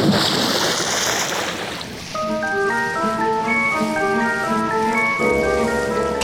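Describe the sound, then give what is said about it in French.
Ocean waves wash in a steady rushing hiss, and after a couple of seconds sustained musical tones fade in and play over the continuing surf. No one speaks. “Tel un lapin fauché en plein vol, la pauvre colibacille s'est effondrée dans les vagues et flotte désormais inerte à la merci des infâmes Lordi et Harel.”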